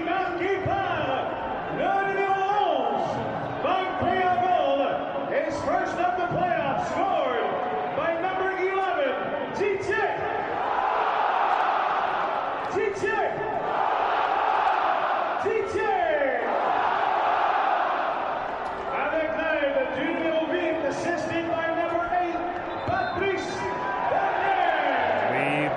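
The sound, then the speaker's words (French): A large soccer stadium crowd chants and cheers loudly and steadily for the whole stretch after a goal by Patrice Bernier, many voices blending into rising and falling sung phrases with a dense roar underneath. “Oh oui, quel plaisir d'entendre la foule y aller de...”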